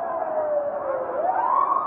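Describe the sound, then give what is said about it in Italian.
A siren wails steadily outside a bar on Christopher Street, its pitch dipping slowly and then sweeping upward again, with a constant background hum and no voices. “Poi, dall'esterno, un nuovo suono, sirene.”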